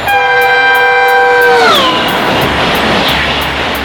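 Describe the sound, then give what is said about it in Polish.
A high-speed Japanese maglev train, which levitates above the rails and can reach 603 km/h, rushes past, its loud whining tone sliding down in pitch as it passes, then fading into a broad roaring wash of wind noise. No voices. “Dzięki temu lewitujący Japończyk może rozpędzić się do 603 km na godzinę.”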